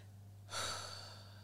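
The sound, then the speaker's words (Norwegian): A single deep breath drawn in: a sudden airy rush that swells quickly, then holds steady for about a second with no talking, over a low steady hum. “Og jeg er sikker på at nå når jeg sier 'trekk pusten dypt', så er det alle som lytter på, gjør det.”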